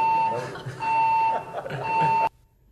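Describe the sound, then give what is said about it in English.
A fire alarm blares in three loud, steady electronic tones, each about half a second long with brief gaps between them, before cutting off abruptly into near silence. “I mean, the fire alarm went off.”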